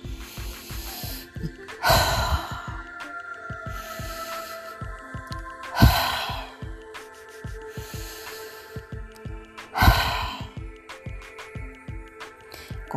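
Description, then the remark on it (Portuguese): Three deep, noisy breaths during a guided breathing exercise, pulling all the air into the lungs and releasing it, rush in and out at steady intervals of about four seconds, each a loud airy surge, over a soft sustained tonal drone with no talking. “Faz umas três inalações bem profundas, de puxar todo o ar para dentro dos pulmões e liberar todo o ar, de fazer barulho mesmo, né?”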